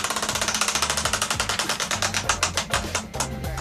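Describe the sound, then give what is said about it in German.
The Bayern 3 topic wheel, stuck with papers fixed on with tape, spins with a rapid, steady stream of sharp clicks, about eight per second, easing slightly near the end, over a low, quiet musical bed. “So, ich stehe hier am Bayern 3 Themenrad”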